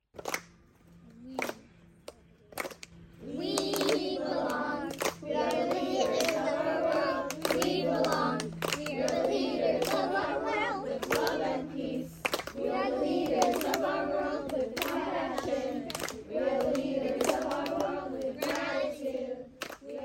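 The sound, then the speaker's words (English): A group of children at a Peace Academy summer camp sings the Peace Academy song together in unison, their voices steady, with sharp rhythmic hand claps and slaps punctuating the song throughout. “Every day of summer camp, the kids sing the Peace Academy song that you hear in the background.”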